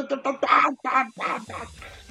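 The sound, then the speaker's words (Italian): A person imitates chickens clucking with a quick run of about seven short, nasal, throaty bursts, fairly loud, with nothing else in the background. “Cioè non è che cacci galline come io credevo, dicevo, sono gli exit poll e stanno cacciando i polli che fanno...”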